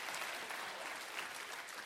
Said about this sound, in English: I'm talking about clap your hands all over the house.